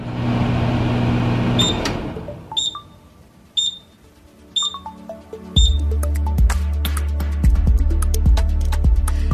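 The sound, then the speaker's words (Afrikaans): A microwave oven hums steadily, stops, and gives a series of high, evenly spaced beeps before starting up again with a louder hum over scattered clicks. There is no talking. “Maar daar is wel 'n paar mites wat 'n mens eers moet deurwerk om 'n mikrogolf volledig te verstaan.”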